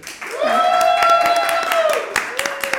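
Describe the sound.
A crowd cheers with a sustained, rising 'woo' of voices over scattered, irregular hand claps, loud throughout and fading slightly toward the end.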